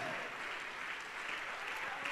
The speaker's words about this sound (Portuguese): Vamos aplaudir ao nome do Senhor por cada vida que está chegando.